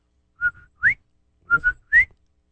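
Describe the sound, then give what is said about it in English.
A person whistles an imitation of a bobwhite quail call, twice in a row: two short notes followed by a sharp rising note, clear with nothing else around it. “Bird that whistles. Yes. Bob Sounds like.”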